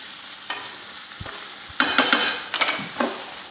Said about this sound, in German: Ja, jetzt, das, ist, das ist das, was sich kein Hobby kocht traut meistens. Jetzt hat er gerade die ganze Mischung geschwenkt. Genau, und in der Luft. In der Luft, ja.